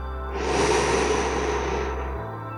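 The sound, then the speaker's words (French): One long, steady, calm exhale during a guided breathing exercise with eyes closed, soft, swelling gently and then fading over about two seconds with no talking around it. “On va faire une respiration calme, toujours les yeux fermés.”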